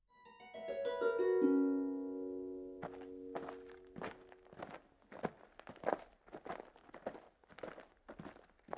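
A short musical chime rings out and fades, then footsteps walk at a steady pace, each step a distinct thud, with no one talking.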